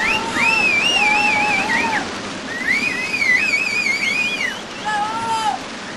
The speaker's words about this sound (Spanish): Lo que hubiera pasado hoy con todos esos chicos si no hubiera puesto el techo, vamos, hay que aplaudir.